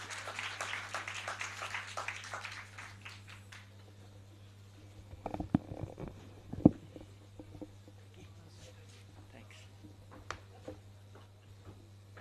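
A burst of dense audience applause, many hands clapping together for a few seconds before it thins out and fades, leaving a steady low hum with a few scattered knocks and thumps.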